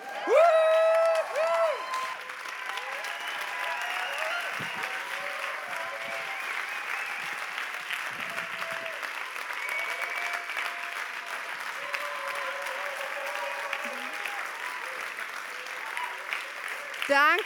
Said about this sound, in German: Lasst uns mit einem Riesenapplaus begrüßen